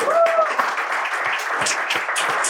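A crowd applauds the naming of SV Werder Bremen player Jean Miku as a favorite player, with dense, steady clapping that fills the whole stretch, the loudness staying fairly even throughout, with a brief whistle-like tone near the start.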